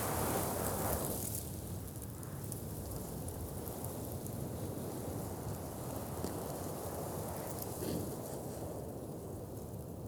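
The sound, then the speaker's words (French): Fine, very dry sand grains crackle and hiss continuously across a dune surface, a dense, fine granular patter that stays steady throughout, with a soft windy wash underneath and no voices. “Il pétille, il pétille euh, à la surface de la dune.”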